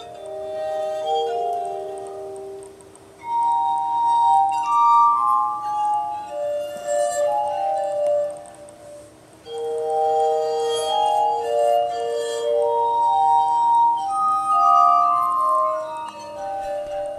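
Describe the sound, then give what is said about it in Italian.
A glass harmonica, a series of rotating bowls touched by the player's wet fingers, plays a slow, sustained melody of pure, ringing tones that swell and overlap, with a soft shimmering resonance and no voices. “L'armonica di vetro, o armonica bicchieri, è composta da una serie di ciotole rotanti, dove il suonatore, con le dita bagnate, le tocca per creare le note desiderate.”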